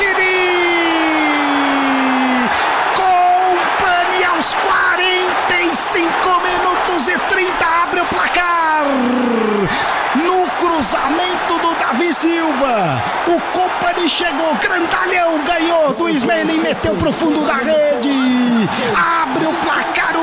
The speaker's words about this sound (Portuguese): City, explode a torcida de Manchester, um pro Manchester City, zero pro Manchester United.